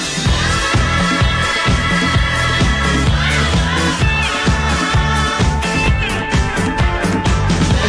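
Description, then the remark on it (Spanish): A loud, upbeat disco pop track plays on its own, with a driving steady beat, thumping bass and bright layered instruments filling the whole stretch without pause. “¿Qué es esto? A no oír esta canción.”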